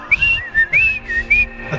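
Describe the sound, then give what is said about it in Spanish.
A person whistles short chirping phrases imitating a little bird, bright high-pitched rising and falling notes in quick bursts, about four or five chirps, fairly loud with no talking. “Él va a llegar a comunicarse en forma de pajarito.”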